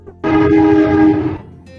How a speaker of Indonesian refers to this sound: Ya, silakan lewat rel, kereta. Rel kereta api. Itu keretanya yang bunyi.